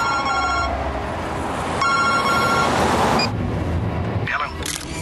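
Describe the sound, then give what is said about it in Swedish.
A phone line rings out in two repeating electronic bursts separated by a short pause, as a call is placed from aboard a ship that has run aground to the caller's boss, heard over a steady, noisy rumble of background ambience. “Han kräver att få gå ombord, gör det, ser alla dessa döda kollegor och liksom hur, hur trasigt allting är och ringer då sin chef. Och det här är samtalet.”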